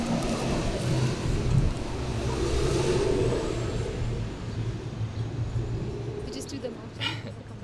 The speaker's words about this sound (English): oh wait, hold on, big truck.